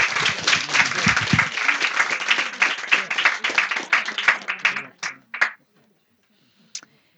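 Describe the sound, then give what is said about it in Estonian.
An audience applauds steadily for about five seconds, the clapping dense, then thins to a few last scattered claps before falling quiet; a big round of applause thanking presenters at an event. “aitäh teile, suur aplaus veel kord.”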